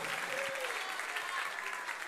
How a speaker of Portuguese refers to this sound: Quem crê nesta palavra, aplauda o nome do Senhor.